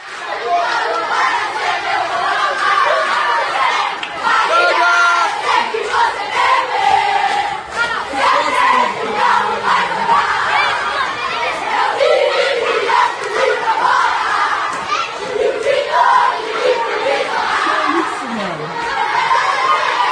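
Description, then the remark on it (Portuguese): A group of children sings the Galo (Atlético Mineiro) club anthem together, loud and continuous, their voices merging into a shouted, chant-like chorus with rising and falling melodic lines throughout. “Vamos ouvir as crianças cantando uh, juntas para desespero dos, das criancinhas, dos pitocos cruzeirenses que ficaram de canto com a bundinha encostada na parede do pátio.”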